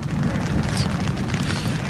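Rumbling thunder: a steady, deep roar that holds at an even, fairly loud level for about two seconds, with no sharp crack and no voices.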